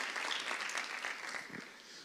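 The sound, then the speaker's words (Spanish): An audience claps loudly for the Lord, a dense, steady wash of many hands with no distinct individual claps, fading slightly toward the end. “Usted le da palmas fuerte al Señor.”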